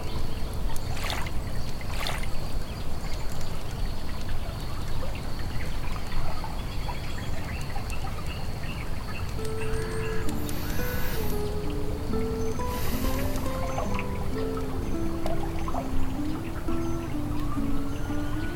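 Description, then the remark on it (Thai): River water flows in a steady, continuous rush in morning sunlight, fairly loud throughout, with soft melodic tones joining in faintly during the second half. “เขาเดินไปที่ริมแม่น้ำที่อยู่ตรงหน้าของเขา แสงอาทิตย์ยามเช้าฉายเข้ามา สะท้อนกับคลื่นน้ำตรงหน้าระยิบระยับราวกับหมู่ดาว”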